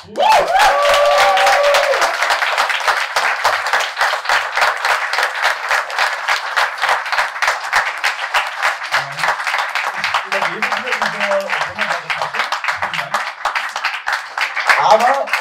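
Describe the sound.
A crowd applauds loudly and steadily for the whole stretch for the evening's winner of a competition final, a dense wash of many hands clapping, with a few voices and cheers mixed in and a brief swell near the end.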